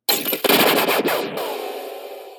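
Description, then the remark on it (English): A loud, sputtering sci-fi energy weapon error effect: a rapid crackling burst of zaps that breaks off, then a buzzing, ringing tail slowly fades out, with no voices. “energy weapon error,”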